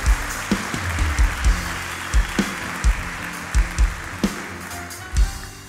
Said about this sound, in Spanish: Y la iglesia dice, dale un aplauso fuerte al Señor, iglesia.